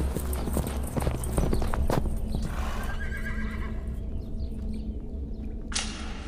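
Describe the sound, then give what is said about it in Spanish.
Horses gallop past with rapid, pounding hoof clatter, and a loud neigh rings out over the hoofbeats, followed by a sharp, bright burst near the end. “¡Y llevan caballos!”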